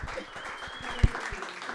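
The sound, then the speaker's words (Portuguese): A round of audience applause: many hands clapping in a dense, steady patter with no pauses, with one sharper, louder clap standing out partway through. “aplauso, uma salva de palmas.”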